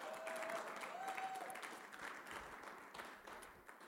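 An audience claps together in sustained, dense applause that stays fairly loud throughout, with a faint whistle-like tone briefly rising above the clapping early on.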